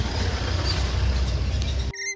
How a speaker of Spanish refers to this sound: Antes he escuchado como el vecino estaba moviendo la silla y, la mesa y ahora pues estamos escuchando a pájaros, coches y demás.